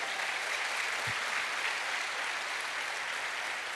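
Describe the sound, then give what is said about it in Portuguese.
Steady, dense applause from an audience fills the whole stretch, a continuous crackling wash of many hands clapping at an even level, with no voices standing out. “Você pode aplaudir a Deus por causa disso?”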